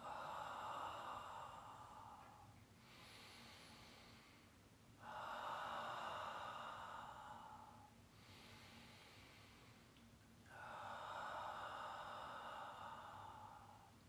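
Slow, deep breathing: three long, loud, airy exhales, each lasting a couple of seconds, alternating with softer inhales in a steady unhurried rhythm, with no talking.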